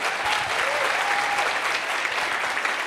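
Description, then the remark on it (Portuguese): An audience applauds for Jesus during a church service, a dense wash of clapping hands that stays loud and even throughout, with a faint whistle-like tone rising briefly above it. “pode aplaudir Jesus, vamos lá, celebra isso.”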